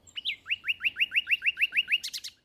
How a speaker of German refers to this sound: Ein geöffnetes Fenster am Abend im Frühling. Der Garten liegt im Dunkeln. In der Hecke geben die Nachtigallenmännchen alles im Sangeswettstreit um die Weibchen, denn die wollen Virtuosen.